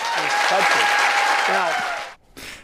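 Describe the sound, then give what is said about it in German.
A large crowd at a Donald Trump event cheers and applauds loudly after his statement about ending the war within 24 hours, in a dense, continuous roar with a few shouting voices rising above it, then it cuts off abruptly before a brief burst of cheering returns. “Ich weiß nicht, was ich schlimmer finde, die Aussage selbst oder das Jubeln der Menschen.”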